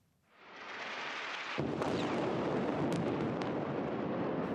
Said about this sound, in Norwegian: Kraftige eksplosjoner lyser opp himmelen i de tettbefolka boligområdene i Gaza.